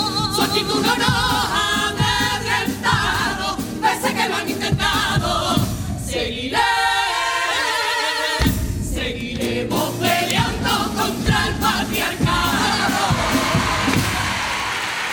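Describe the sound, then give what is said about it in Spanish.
A packed audience at the Teatro Falla in Cádiz, Spain, cheers and roars loudly during a carnival contest, a dense, sustained wall of crowd noise with whoops and shouting that briefly dips in the middle before surging again. “Sonido de la noche en el Teatro Falla de Cádiz.”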